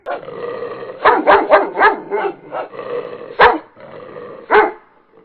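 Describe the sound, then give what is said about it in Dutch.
Several dogs bark and growl in a brief scuffle after chasing other dogs, with a rapid cluster of sharp barks followed by a couple of louder, isolated barks over continuous snarling. “Goed, dat was een kleine hondenruzie.”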